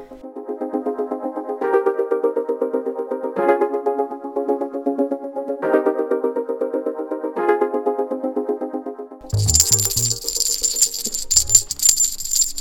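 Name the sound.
ringing bell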